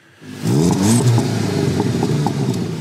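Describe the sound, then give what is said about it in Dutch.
A Volkswagen Golf engine revs up, rising in pitch with a strong harmonic growl, then settles into a steady, loud idle rumble with light mechanical clatter. “Ja, het is een hele dure golf.”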